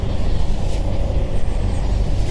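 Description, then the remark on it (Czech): Steady outdoor wind whooshes and rumbles continuously at a wind turbine about 1.8 km from the village of Kámen, a broad low roar with no distinct events and no voices, filling the whole short stretch at an even, fairly loud level. “nic nejede, tak slyšíme teďka ano, ano. to svištění větru.”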